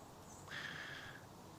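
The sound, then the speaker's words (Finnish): A single faint, drawn-out bird whistle rises briefly and then holds steady for about half a second, over quiet outdoor background hiss, with no voices. “Niin kuin tässä nyt istuu ja linnut möykkää ja naapurisirkkelöi ja pieni kohina tuolla kaukana.”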